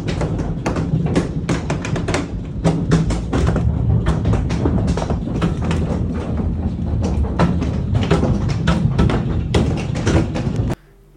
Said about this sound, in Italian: sono entrate bombe di ghiaccio, che vi giuro vi metto il video adesso.